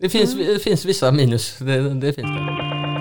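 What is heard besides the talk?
mobile phone ringtone playing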